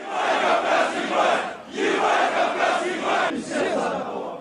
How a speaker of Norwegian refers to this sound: Slik høres det ut når aggresjonen koker på fotballtribunene under Europamesterskapet i fotball nå. I Polen og Ukraina, hvor kampene går, har også mange hardtslående russiske fotballfanatikere tatt veien for å heie på det russiske landslaget.